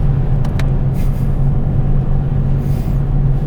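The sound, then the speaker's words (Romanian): Steady low rumble of a car driving on a snowy road behind a truck, heard from inside the cabin, with constant engine drone and road noise and a couple of faint brief clicks near the start. “Este zăpadă multă și eu mă concentrez foarte mult la drum să nu să nu fie celălalt ultimul podcast.”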